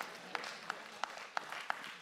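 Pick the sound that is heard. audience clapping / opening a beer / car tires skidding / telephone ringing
audience clapping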